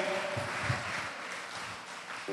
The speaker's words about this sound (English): Keep clapping.